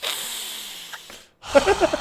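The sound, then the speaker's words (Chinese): A person imitates deliberate, pointed sniffing: a long, airy intake of breath through the nose, a brief pause, then a second rougher, snorting sniff with a little voice mixed in. “就这边故意吸鼻子的，半这样，唉。”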